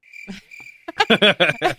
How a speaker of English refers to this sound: Silence. Crickets.